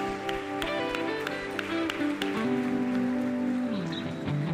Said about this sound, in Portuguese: Mais uma salva de palmas que ele sempre merece.